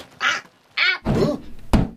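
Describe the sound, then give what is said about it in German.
A cat flap swinging shut as the cat Long John comes through it, several hollow clattering thumps in an uneven sequence, the last one a sharp knock, with no talking. “Von der Katzenklappe.”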